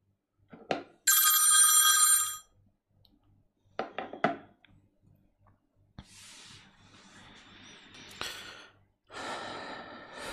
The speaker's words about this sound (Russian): Пускай у меня тоже звонит телефон.